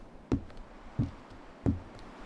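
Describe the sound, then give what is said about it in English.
Three soft, muffled thuds like doors knocking shut somewhere off in the distance, evenly spaced about two-thirds of a second apart, with quiet background between them and no voices. “The doors go shutting far in the distance gently knocking like the pulse of a heart.”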